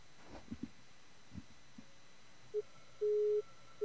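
A telephone busy signal after a dropped call: steady, mid-pitched beeps repeating in an on-off pattern, preceded by a few soft thumps and clicks on the line. No one speaks.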